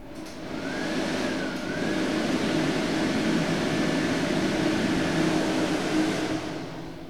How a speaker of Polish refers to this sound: Włączam suszarkę.